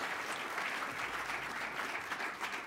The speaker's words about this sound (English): Give him a great round of applause if you would, okay?